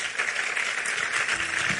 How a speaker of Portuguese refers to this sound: Se 2019 foi o lugar da tua vergonha, vamos aplaudir a ele, irmão.